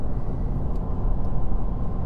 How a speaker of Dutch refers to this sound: poeh, toch wel lastig soms een podcast opnemen terwijl je auto aan het rijden bent en op de weg moet letten. Dus als ik even stilval, dan weten jullie dat het daaraan ligt.